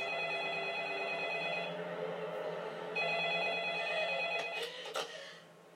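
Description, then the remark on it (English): A telephone rings in two long bursts separated by a short pause, loud, with the ringing trailing off at the end. No one speaks. “Nigga, that phone call for you, nigga.”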